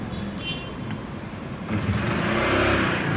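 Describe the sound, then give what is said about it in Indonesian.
A motorcycle engine revs and grows louder as it passes outside, a steady droning rumble that swells midway and stays strong to the end, with no voices present. “ye ada motor ya”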